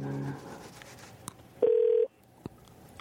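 A radio host dials a phone call to a listener: one loud, steady mid-pitched electronic beep lasting about half a second, with soft clicks before and after and a faint hum at the start.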